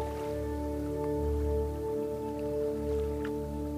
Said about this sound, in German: Wir hören keinen Lärm, keine Geräusche, sondern wir hören nur das Wellenrauschen. Es sind keine großen Wellen, denn wir sind hier nicht auf dem offenen Meer. Es sind kleine Wellen, die an das Ufer kommen und Hallo sagen.